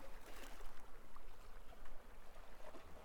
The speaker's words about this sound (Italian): c'è un detto thailandese per cui chi ha bisogno di incoraggiamento deve andare al mare. Se si ascolta attentamente il rumore delle onde che si infrangono sulla riva, si potrà sentire il mare sussurrare Su, su!